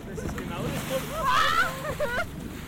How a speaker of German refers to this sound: Das Boot der DLRG, der Deutschen Lebensrettungsgesellschaft, braust vorbei, macht eine mächtige Bugwelle, die den kleinen Kahn der Marinekameradschaft bedenklich ins Wanken bringt.